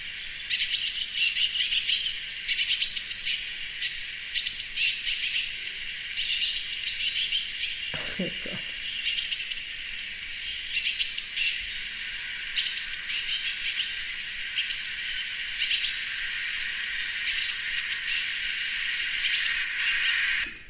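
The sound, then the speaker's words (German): Birds call back and forth on a balcony in a steady, busy stream of high chirps and twitters, continuous, with one brief low thump partway through and no talking. “das macht diesen Vogel eben auch so menschlich”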